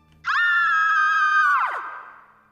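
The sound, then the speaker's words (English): A loud, shrill scream like a little girl's, holding one piercing high pitch for over a second before sliding downward and trailing off, with no other voices around it. “As soon as he did, they all heard a loud scream that sounded like it belonged to a little girl.”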